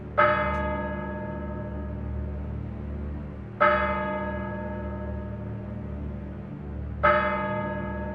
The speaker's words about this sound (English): As the clock strikes 13, it's Wednesday, the 21st of December, year of our Lord 2022, day 1014 of the emergency.